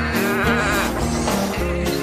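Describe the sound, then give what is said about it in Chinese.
Several of Farmer Pecks' sheep, out through an open gate and wandering about, bleat over one another in a steady, loud chorus of wavering, nasal cries that overlap without pause for about two seconds, with no talking. “哇哦，农夫佩克斯的绵羊已经出去了，大门开着，他们到处走。”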